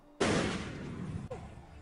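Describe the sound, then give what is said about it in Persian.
A single loud gunshot cracks out suddenly during a court session, around half past five on a cold evening at dusk, and rings off in a long, echoing tail, with a faint second knock near the end. No one speaks. “ساعت نزدیک پنج و نیم عصر هوا سرد تو گرگومیش غروبه که یهو یه صدای تیر میاد”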